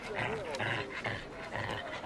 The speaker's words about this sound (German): Ein junger Hund will eine leere Plastikflasche mit dem Maul fassen, aber es klappt nicht. Die Flasche rutscht ihm immer wieder aus dem Maul heraus.